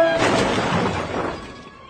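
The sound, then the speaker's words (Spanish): A car, parked at the edge of a cliff with its brake knocked loose, plunges over the edge: a loud, sustained crash of crunching metal and shattering glass rings out for nearly two seconds, then thins into scattered debris before fading. “El auto cae al vacío.”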